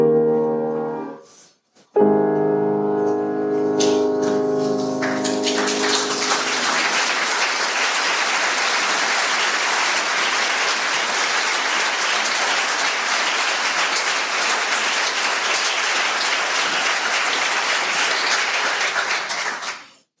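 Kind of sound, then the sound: crowd, audience applause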